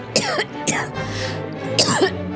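coughing

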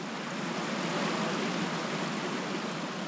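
flowing water

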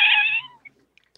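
cat meowing loudly

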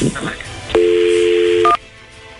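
telephone dialing tones

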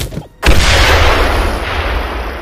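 grenade explosion

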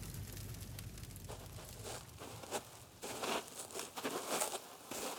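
crackling fire

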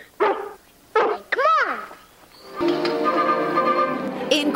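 dog barking

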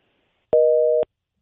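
telephone busy signal

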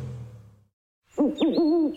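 owl hooting

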